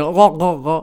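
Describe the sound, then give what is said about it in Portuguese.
A woman voices three short, loud barking honks in quick succession, imitating a seal, with no other sound around her. “Era, era o som de uma foca.”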